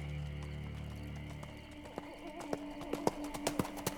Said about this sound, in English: Soon, the sound of hooves came through the speakers. It didn't fit at all with the setting of Lan's book, so she put her thumb in between the pages and turned her head to look at her phone.